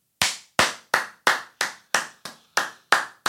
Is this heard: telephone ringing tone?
no